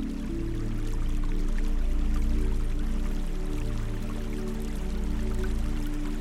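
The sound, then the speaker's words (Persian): Gently flowing water of a small, full river, a steady continuous babble with soft trickling details, set against a low sustained humming drone, with no voices. “رودخانه کوچک و پرآب امواج کوچک قلتان بر سطح رودخانه”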